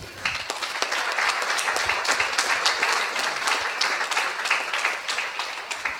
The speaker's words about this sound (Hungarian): úgyhogy akik itt vannak szerzők, én úgy gondolom, hogy meg is érdemelnek egy tapsot.